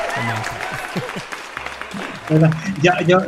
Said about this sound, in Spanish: Aquí a todo el mundo le damos un aplauso.